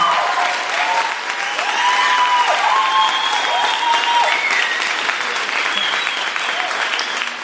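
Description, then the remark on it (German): A live audience in Kreuzberg applauds steadily for about seven seconds in an applause vote for the entry 'Industriearchitektur', a dense, even wash of clapping with a few cheers and whoops rising over it, fading slightly at the end. “Euer Applaus für die Industriearchitektur.”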